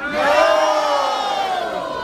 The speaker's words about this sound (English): Sounds like a resounding yes over here. A resounding agreement.